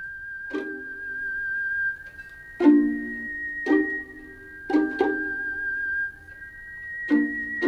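A high, steady whistled melody drifts over the intro of a chanson recording, with plucked, bassy accompaniment chords striking at irregular intervals beneath it; no voices.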